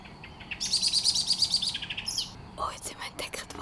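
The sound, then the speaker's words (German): A Eurasian blackbird at a forest edge scolds with a rapid, insistent series of sharp chattering notes, fairly loud, warning of a ground threat as a runner passes by, followed by a few more scattered calls over a low outdoor background. “Die Amsel, die mit uns schimpft.”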